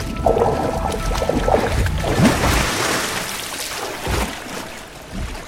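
Water churns and splashes as an ichthyosaur breaks the surface, followed by a short rush of air like a breath being drawn as it refills its lungs, with steady sloshing throughout.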